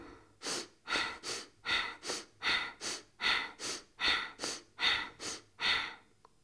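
Rapid, forceful bhastrika (bellows) breathing demonstrated at a microphone: about a dozen loud, noisy breaths in a steady quick rhythm, each a sharp rush of air, with no talking.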